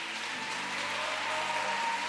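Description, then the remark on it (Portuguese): An audience claps loudly and steadily in praise of God, a dense wash of many hands applauding together at an even, sustained intensity for the whole stretch, with no voices standing out. “E eu quero que você dê a mais forte salva de palmas que você puder dar.”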